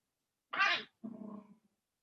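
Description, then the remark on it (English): A small dog makes two quick funny noises: a sharp snorting burst, then a short low grumbling whine, with no talking around them. “They just make the funniest noises. They're so funny. They're small dogs.”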